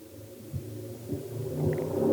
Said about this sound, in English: can you hear that what was car? that was that like a car it sounded like a car was driving through your apartment